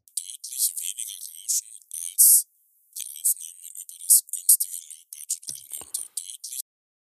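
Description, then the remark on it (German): Speech filtered down to only its highest treble, leaving a thin, hissy, whisper-like stream of sibilant 's' and 't' sounds that follows the rhythm of talking, with a brief pause midway. “Also jetzt breiter Frequenzbereich in den Höhen ist jetzt zwischen 6 und ähm, 14 Kilohertz. Das klingt dann so, wenn wir auf Solo hören.”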